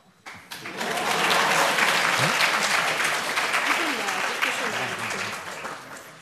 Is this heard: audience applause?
yes